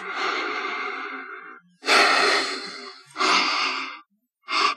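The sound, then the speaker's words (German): Slow, deep breaths drawn in from peppermint oil drops rubbed between the hands, four in a row with brief pauses, the first long and airy and the last short and quick, with no talking. “verreibst es und atmest das so ganz tief vier, fünf Mal ganz bewusst ein.”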